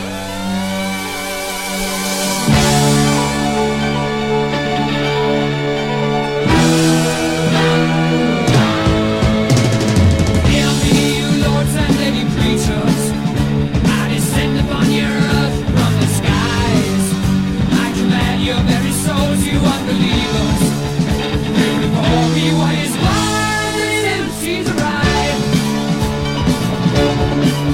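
A loud, driving 1974 rock song, about 2 minutes 45 seconds long, opens with a quick piano run, then the full band crashes in with distorted guitars, pounding drums and layered vocals, playing continuously at high energy.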